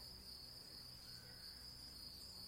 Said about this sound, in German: Also hier weiter unten hat es ein Naturschutzgebiet. Und ich sitze hier an diesem Weiher und höre Vögel pfeifen. Ich höre Grillen zirpen.